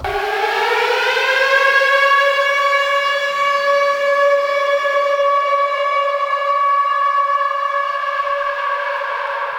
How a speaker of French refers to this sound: Ouais, j'envoie la sirène et et on commence.